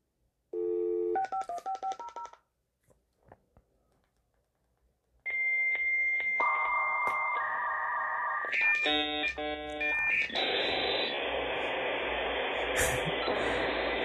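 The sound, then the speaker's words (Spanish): A dial-up modem connecting to the internet through Telmex's connection program dials a string of touch-tone beeps, pauses briefly, then loud handshake tones warble and shift before giving way to a harsh burst of static-like screeching. No one speaks. “Este, abrías el, el, programa que era para conectar, a lo mejor era el de Telmex, ¿no? Telmex Infinito con Telmex, y de repente se escuchaba algo así.”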